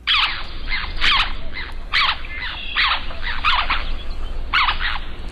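Harsh, scratchy black tern calls repeat in quick bursts, roughly a dozen sharp notes in irregular clusters, loud over a soft low background hum, with no one talking.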